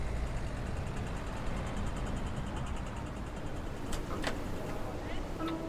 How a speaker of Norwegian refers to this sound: I dag er det tilbake til vanlig trafikkspetakkel i Majorstadkrysset. Som hver dag.